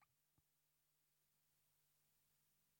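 A phone call dropping out during a conversation held over the telephone: two faint clicks, then the voice vanishes, leaving only a low steady electrical hum and soft hiss on the line.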